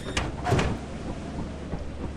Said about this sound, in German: Und geht die Tür wieder auf.